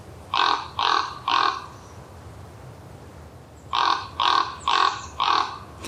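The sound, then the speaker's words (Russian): A raven croaks three times in a quick series, pauses, then gives four more rolling, hoarse calls, clear over a faint outdoor hush with no voices. “А у ворона более такой ракочущий голос.”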